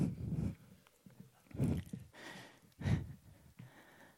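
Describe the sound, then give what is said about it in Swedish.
Rhythmic heavy thumps and scuffs, about four evenly spaced bursts, of a dog-like four-legged robot's feet pounding as it runs, with a mechanical whir between steps and no talking. The robot can run slightly faster than Usain Bolt. “Den här hundliknande roboten kan springa lite snabbare än Usain Bolt.”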